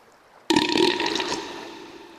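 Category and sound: human body sound, burp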